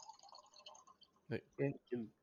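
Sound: water being poured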